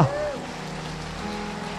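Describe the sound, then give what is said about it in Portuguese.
An audience claps in praise to God in a dense, steady wash of applause that holds at an even level throughout, with a voice briefly audible at the very start. “Aplaude a Deus agora.”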